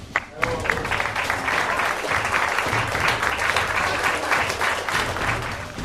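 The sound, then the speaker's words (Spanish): Sustained audience applause closing the 2018 Radiochips de Mármol gala at the Gran Teatro La Pilarica, a dense, steady wash of many hands clapping at an even, fairly loud level for several seconds, with no voices standing out. “yo creo que ya podemos dar por finalizada con un aplauso eh, la gala de los radiochips de mármol de 2018.”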